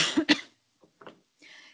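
A loud, close double cough bursts out at once, followed by a couple of softer throat sounds and a brief breathy exhale, with no talking.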